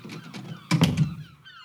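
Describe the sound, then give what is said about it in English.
A door opens with a couple of solid thunks in quick succession as about a dozen men crowd into a chaplain's room aboard a transport ship in the evening, followed by a brief faint rustle and shuffling as the sound dies away. No one speaks. “Come in. The door's unlocked. About a dozen men crowded into his room.”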